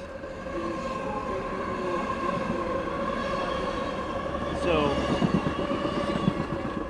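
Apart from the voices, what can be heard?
train passing on rails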